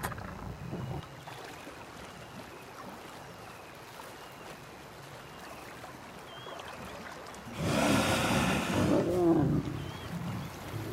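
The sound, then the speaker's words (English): A pride of lions growls and roars while feeding on a dead hippo washed up on a riverbank, with low rumbling snarls throughout and one louder, harsher burst of roaring near the end, set against a steady outdoor riverside hiss. “The river pride feeds on a dead hippo washed up on the river's bank.”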